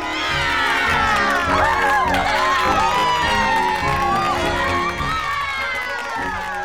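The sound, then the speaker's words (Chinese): A crowd cheering loudly and steadily at a race finish line at the foot of a mountain, a dense wash of many excited voices with high shouts and whoops rising above it throughout. “呼呼大睡的兔子突然被山脚下的欢呼声吵醒，它揉揉眼睛，一看太阳快下山了，就赶紧跑下山。”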